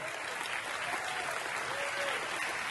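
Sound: audience clapping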